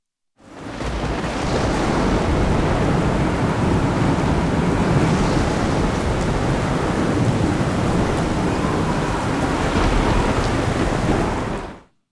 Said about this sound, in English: And I want you to imagine being in the boat that's behind me with the treacherous shores and those winds and waves in the darkness, complete darkness.